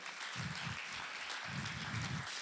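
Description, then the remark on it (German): Steady audience applause for two volunteers called onto the stage, a dense wash of many hands clapping at an even loudness for a couple of seconds, with no voices over it. “Wir, mal Applaus für die beiden.”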